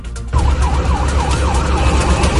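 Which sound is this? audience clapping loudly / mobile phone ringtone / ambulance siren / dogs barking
ambulance siren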